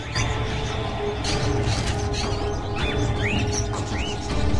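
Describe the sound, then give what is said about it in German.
Several birds chirp and tweet in short rising calls over a steady, dense background hum, with a few brief clicks and rattles in between as a birdcage is opened and a paper is taken out of it. “In einem der Vogelkäfige sah er etwas. Er öffnete den Käfig und nahm das Papier.”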